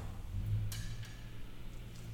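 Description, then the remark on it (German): A few soft, unevenly spaced clock ticks, one sharper than the others, with irregular gaps between them, heard fairly quietly over a low background hum with no one speaking. “Dass das nicht regelmäßig tickt, das macht nichts, das ist nicht ganz gleichmäßig ist.”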